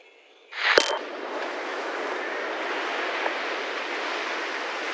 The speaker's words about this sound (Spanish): A través de su señal escuché lo que supe era una playa, el golpe de las olas, la brisa cegando un micrófono, reggaetón clásico a lo lejos.